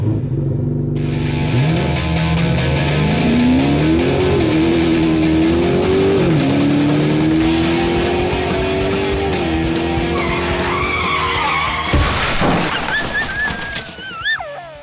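An Opala car's engine revs up loudly and climbs in pitch as the car drives up to pick people up, holding a steady roar before a sharp, squealing burst near the end. No one speaks.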